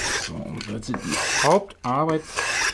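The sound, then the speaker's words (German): Loud rasping of a file scraped across wood in repeated back-and-forth strokes in a double bass workshop, some strokes taking on a squeaky, whining tone, with no one talking. “in der Basswerkstatt”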